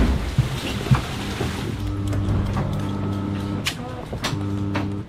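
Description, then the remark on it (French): A sailboat autopilot ram actuator whirs with a steady electric motor hum at night, running for a couple of seconds, pausing briefly, then starting again over a constant wash of wind and water noise. “Ça, c'est le bruit du verre du pilote automatique.”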